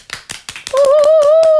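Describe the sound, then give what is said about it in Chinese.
A steady run of about eight sharp hand claps, depicting walruses in a story applauding an animal choir at a talent show, soon joined by a loud, sustained high-pitched tone that holds and slowly rises beneath the clapping until the end. No one speaks. “后来，最小的海象拍起手来了，然后所有的海象也都拍起手来了。”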